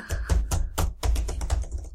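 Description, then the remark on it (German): Loud computer clicking and keyboard typing as someone creates a Kickstarter campaign, a quick irregular run of sharp clacks and taps with no voices. “Ich klicke jetzt mal ganz laut.”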